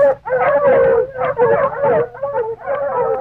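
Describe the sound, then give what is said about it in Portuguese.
Several dogs at a mansion howl together in long, wavering, overlapping cries, fairly loud, with brief dips between howls and no talking over them, as the maid opens the gate to feed them. “E na hora de sempre, a empregada da mansão abriu o portão para dar comida pros cachorros.”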